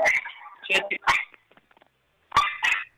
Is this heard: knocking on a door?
no